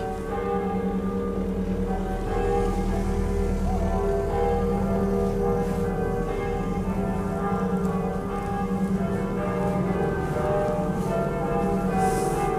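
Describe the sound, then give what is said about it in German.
Real church bells in Göttingen ring continuously and loudly, their overlapping tones blending into a dense, sustained peal with rich lingering overtones, heard alone without any talking. “Ach, echte Glocken, nicht wie in der Zukunft. Nein, das sind echte Glocken.”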